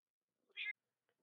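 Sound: cat meowing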